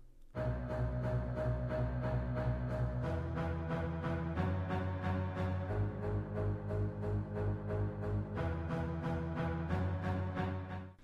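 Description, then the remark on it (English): Double basses play short, detached eighth notes in octaves, a steady driving pulse low in the orchestra, continuing without pause beneath sustained higher instruments. No one speaks. “And that's the double basses come in again.”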